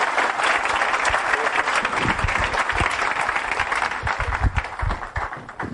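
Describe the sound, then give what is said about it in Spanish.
A crowd applauds steadily and loudly for several seconds, a dense wash of many hands clapping together with a few sharper claps standing out. “Y yo quiero que le den un fuerte aplauso porque ellos son los principales.”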